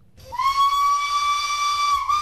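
The historic steam locomotive of the Christmas train between São Bento station in Porto and Irmesinde, Valongo, sounds its whistle in one long, steady, piercing blast, with a broad hiss of escaping steam beneath it and a faint low rumble.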